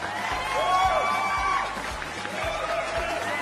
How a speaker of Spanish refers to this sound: Aplausos para mí porque ahora sí lo puse a tiempo.